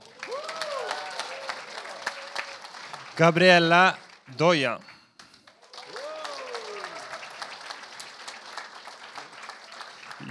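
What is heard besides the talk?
audience applause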